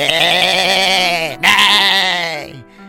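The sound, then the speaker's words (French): Two long, quavering sheep bleats, loud, the second following right after a brief pause and trailing off at the end. No one speaks. “Il se sauva, suivi de la vache, des moutons et des poules qui meuglaient, bêlaient et gloussaient à qui mieux mieux.”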